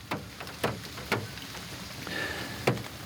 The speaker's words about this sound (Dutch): Het regent een beetje. Zoals je hoort. Dus dit is Nunesbroek vanuit de auto.